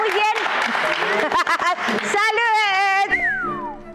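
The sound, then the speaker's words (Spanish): A brief burst of clapping fills the opening second beneath a voice, then gives way to laughter and cheerful talk, with a rising exclamation near the end. “Aplauso, por favor,”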